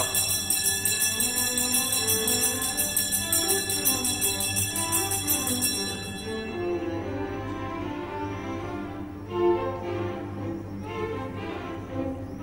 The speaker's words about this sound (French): Voici la cloche qui sonne, mon lieutenant.